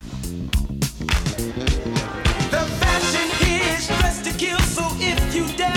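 A hip-hop track rides on a bouncing funk bass line with a steady, punchy drum beat and vocals layered over the groove, playing loud and full throughout.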